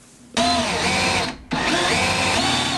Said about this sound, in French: cette visseuse, l'outil indispensable